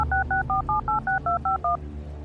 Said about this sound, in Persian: گوشیمو در آوردم و شمارهش رو گرفتم